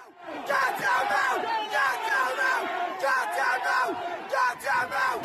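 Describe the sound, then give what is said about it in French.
A rioting crowd of several hundred people shouts in the street in Ireland, gathered near the site of a knife attack in a neighbourhood with an immigrant population. Many voices yell and chant at once in a loud, continuous roar, with bursts of louder cries rising and falling throughout. “Plusieurs centaines de personnes s'étaient réunies à proximité du lieu où se sont déroulés les faits, un quartier où vit notamment une population immigrée.”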